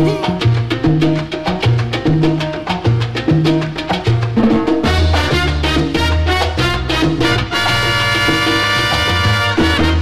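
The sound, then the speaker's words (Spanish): A loud, upbeat salsa song by a Puerto Rican sonero, an instrumental passage with a driving bass line and crisp percussion hits; brassy horns swell in around the midpoint, and no singing is heard. “Aquí está …, a través de lo que pide la gente”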